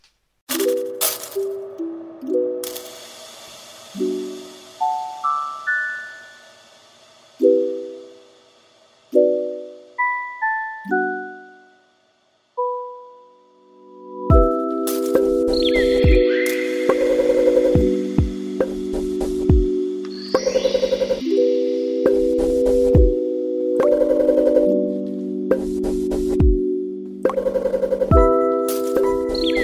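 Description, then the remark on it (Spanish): Glitch-genre electronic song built mostly from recorded sounds such as birdsong and a cricket, edited to sound like a synthesizer: sparse, chime-like tones step up and down with short pauses, then a dense, stuttering texture of chopped tones and sharp clicks takes over, loud and rhythmic, with no voices. “los sonidos que utilizan en toda la canción eh, son en su mayoría sonidos grabados, eh, por ejemplo el canto de los pájaros o, un grillo, y editados para que parezca un sonido de un sintetizador o un sonido electrónico.”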